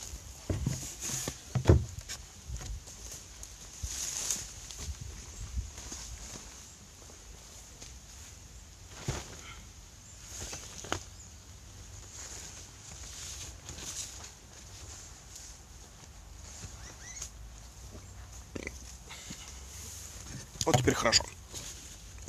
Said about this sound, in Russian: Так, и у меня отвалился зонтик. Пойду поставлю на место.